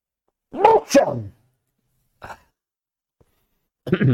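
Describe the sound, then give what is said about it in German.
A single loud sneeze from a person reading aloud, with a voiced build-up and a sharp burst, followed by a brief faint sniff and another short noise at the end, with no talking. “Entschuldigung, ich muss mal niesen.”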